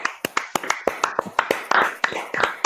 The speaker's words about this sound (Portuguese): Uma salva de palmas pro Checha, porque é um cara que merece todos os aplausos sempre.